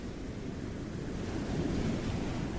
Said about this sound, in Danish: Som sagt synes jeg, det gynger en hel del, det er jo nok fjollet. I forhold til, at jeg er rimelig sikker på, at det her er nogle af de mildeste bølger, vi kommer til at opleve.